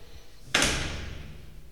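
A bathroom door, closed by someone else, swings shut with one sharp impact, followed by a brief lingering rumble as the sound dies away. No one speaks.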